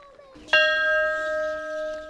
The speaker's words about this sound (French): Qu'est-ce que ça vous rappelle, la cloche qui sonne oh, Ça vous rappelle l'appel du grand docteur.